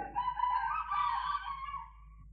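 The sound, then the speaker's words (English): A rooster crows once in the early morning, a long drawn-out call lasting about two seconds, faint against a quiet background with no one talking. “You may hear the cocks, the chickens, the hens are crowing at this minute or at this moment.”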